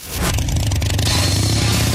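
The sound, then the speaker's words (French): A Harley-Davidson motorcycle engine rumbles loudly, its deep throbbing idle swelling into a rev, with no voices over it. “Si ce son te parle, c'est certainement un signe. L'appel de la liberté vient de sonner. Direction Léo Harley-Davidson Brossard.”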